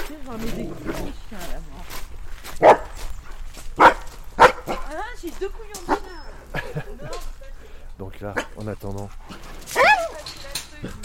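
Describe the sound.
Dogs bark in several sharp, irregular bursts with some whining and whimpering in between, while a person talks over them throughout.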